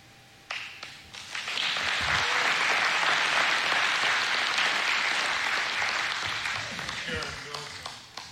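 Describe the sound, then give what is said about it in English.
An audience breaks into sustained applause for a speaker, swelling quickly, holding steady for several seconds, then gradually tapering off, with faint voices mixed in. “Phil is an amazing man. Give him a hand.”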